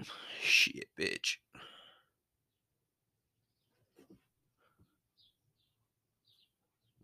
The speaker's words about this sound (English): you hear the birds chirping in the background? I'm fine with it. You know what I mean? It, it's it's fucking annoying at sometimes, but at the same time, you know, this is what we got.